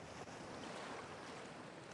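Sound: waves on a beach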